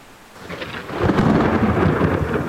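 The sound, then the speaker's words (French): A violent storm over the sea off the island of Vardø in 1617: heavy thunder swells in after about a second into a loud, sustained rumble, with a steady hiss of rain beneath it and no voices. “Soudainement, une violente tempête s'abat sur la mer.”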